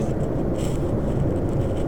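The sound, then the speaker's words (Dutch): A steady, low rumble of a car being driven, heard from inside the cabin: continuous road and engine drone at an even loudness, with no voices or distinct events. “Energie is voor mij net zo echt als de auto waar ik nu in rijd.”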